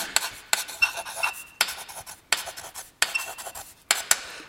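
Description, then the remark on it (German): Scratchy strokes of a hard slate pencil writing on a slate tablet in short repeated bursts, with occasional thin, high-pitched squeaks cutting through the gritty scraping. Fairly loud, no voices. “Und Sie hören schon, zwischendurch kommt so ein sehr unangenehmer Quietscher zum Vorschein.”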